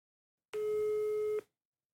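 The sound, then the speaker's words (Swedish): A single steady telephone tone, like a dial or ringing tone, sounds clearly for just under a second as someone phones their mother, then cuts off, with silence before and after and no talking. “Jag ringer min mamma nu och frågar.”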